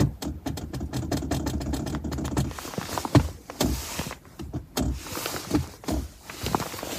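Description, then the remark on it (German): A rapid, irregular plastic rattling and clattering of a loose sliding car console cover pushed into its rear position, over a low engine hum, dense and buzzy in the first few seconds, then looser knocks and jostles as the car moves. No one speaks. “Vielleicht ist es so nicht gedacht, aber wenn man die in die rückwärtige Position schiebt, dann hört sich das so an.”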